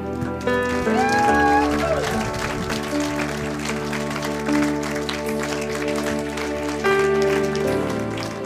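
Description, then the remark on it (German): An audience breaks into sustained applause for God and for each person who prayed along for the first time, dense rapid clapping that holds steady for several seconds, layered over soft sustained keyboard chords and a few voices. “Lasst uns Gott einen Applaus geben und jede Person, die das das erste Mal mitgebetet hat.”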